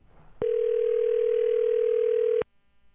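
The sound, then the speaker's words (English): A telephone tone on an outgoing call: one steady, loud electronic hum that holds for about two seconds and then cuts off abruptly, with no one talking over it. “So let's see if we can get his ass on the phone.”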